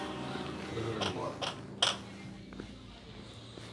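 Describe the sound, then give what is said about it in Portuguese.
Three or four short, rasping scrapes, like claws dragging across a wooden door, come in close succession and then fade into a quiet, low background hum. “Parece a unha dela, arranhando.”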